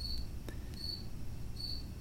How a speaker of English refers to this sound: I'm out in the garage with the crickets.